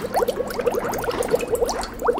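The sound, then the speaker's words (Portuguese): A whole beef tripe boiling in a pot of water with lemon juice, at a steady boil with dense, continuous bubbling and quick popping blips at an even rolling rhythm, moderately loud and with no voices. “Depois do bucho ficar de molho o tempo necessário, coloca ele inteiro na panela com o suco de um limão e deixa ferver um pouco.”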